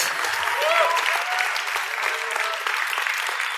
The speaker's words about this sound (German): Der Applaus wäre eigentlich jetzt, müsste grösser sein für Gott, weil, ähm, wir haben vorhin für Gott applaudiert, das war weniger laut gewesen.